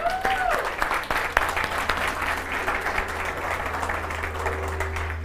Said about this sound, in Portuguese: Dá um aplauso a Jesus.